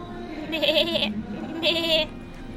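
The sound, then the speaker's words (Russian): A ram bleats twice, each call a wavering, quavering cry lasting about half a second, separated by a short pause. Clear, with no talking. “Баран ответил.”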